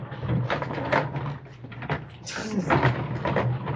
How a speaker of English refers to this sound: I was just shutting the door.